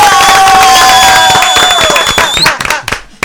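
Loud studio applause and cheering on the TV show Al Mediodía con Mariotti, introducing the De Paso y Repaso segment, dense clapping blended with sustained bright tones, then the crowd noise thins out into a few scattered claps before stopping.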